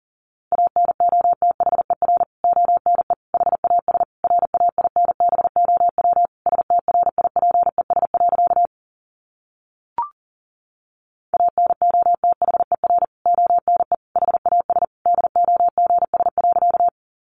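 Fast Morse code at about 40 words per minute: a single steady, mid-pitched beep keyed in rapid dots and dashes, broken by a short pause with a faint click before it resumes.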